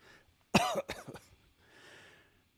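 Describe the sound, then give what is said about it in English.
A sharp cough bursts out, followed by a couple of quicker rough coughs, then a soft breathy exhale trailing off into quiet. “Cough.”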